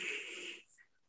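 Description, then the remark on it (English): A dog lets out an odd, raspy wheezing snort lasting about half a second, followed by a couple of faint, brief squeaky tones; fairly quiet, with no one talking. “sorry, that's my dog and uh, son. Uh, don't know what they're up to. very strange um, noise.”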